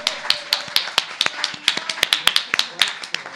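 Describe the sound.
A small group claps for a few seconds, applauding the winner: sharp overlapping claps at an uneven rhythm, with faint voices murmuring underneath.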